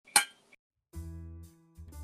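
A single bright clink of glasses in a toast, sharp, with a short ringing tail and a faint second tap, followed by low droning tones and no voices.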